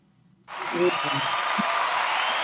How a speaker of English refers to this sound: There we go. We got some uh, applause right there. I'm playing with my little sound deck.